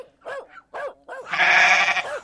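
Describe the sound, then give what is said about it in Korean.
Two goats bleat: three short, wavering bleats in quick succession, followed by one longer, louder and harsher drawn-out bleat. No talking. “덩달아 옆에서는 닭 여섯 마리가 응원하듯 울어 제꼈고 염소 두 마리는 비웃는지”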